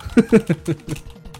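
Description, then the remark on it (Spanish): A quick run of sharp clicks and taps of someone clicking on a computer on the Oculus web page and adding to cart, about five or six strikes in under a second, moderately loud, with no voices. “Desde aquí puedo escucharlo cliqueando la página de Oculus Bye, add to cart.”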